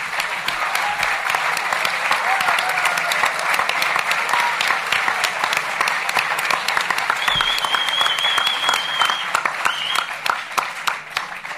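A crowd applauds steadily and loudly for about twelve seconds, dense clapping with a few whistles and cheers rising above it, with no pause or fade.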